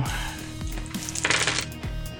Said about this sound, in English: That was a lot of dice. Yeah. A lot of d4s. That was a lot of dice.